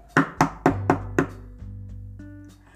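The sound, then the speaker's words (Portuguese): Five firm knocks on the wooden door of a small house in a steady rhythm, fairly loud, followed by a low hum with a faint tonal sound at the end; no one answers. “Bateu, bateu, mas ninguém respondeu.”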